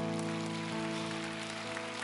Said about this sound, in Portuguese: Eu não sei quem tem, aplauda o Senhor, meu irmão.